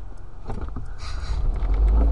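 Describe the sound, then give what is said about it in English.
Worn car brakes grind as a car slows to a stop, a rough low rumble that swells louder toward the end, with a brief faint squeal partway through and no talking. “These fucking brakes have got to get addressed. That's ridiculous. I'm surprised we're stopping at this point.”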